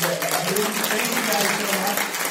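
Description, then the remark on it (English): Steady audience applause, a dense crackle of many hands clapping at an even loudness through the whole stretch, with some voices mixed in beneath it. “Well, uh, give a great round of applause those”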